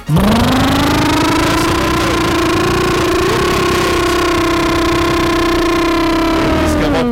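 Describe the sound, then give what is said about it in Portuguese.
A motorcycle engine revs up and holds a loud, steady high-pitched drone for several seconds before easing off, with no talking over it. “Acelera a moto.”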